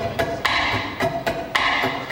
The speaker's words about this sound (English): But there's other kind of click sounds that we can do on the, on the ukulele here, like this one.